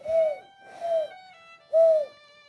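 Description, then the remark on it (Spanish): A voice imitates a dove's cooing: three hollow, hooting coos, the first two back to back and the third after a short pause, with no other talk. “Viste que no a todo el mundo, a todo el mundo le gustan las palomas”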